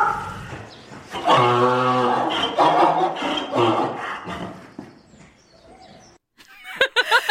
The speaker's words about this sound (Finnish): se on niinku jotain hirnumisen ja tuon aasin vinkumisen väliltä. Nyt me kaikki tiedämme, miltä muuli kuulostaa.